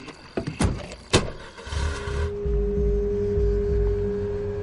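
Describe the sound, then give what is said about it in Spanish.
A few sharp thuds and clicks as car doors shut while people get into the car, then the engine starts and settles into a steady low rumble as it drives off, with no talking. “Se montan en el coche.”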